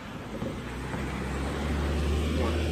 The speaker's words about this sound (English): Two car come. You got two cars coming two different ways.